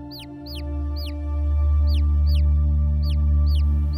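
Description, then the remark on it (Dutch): A chick peeps again and again, about eight short, high, bright chirps spaced in a loose rhythm, standing out clearly over a steady low humming drone. “Een kuikentje met een vliesjasje aan en een klein mutsje op het hoofd.”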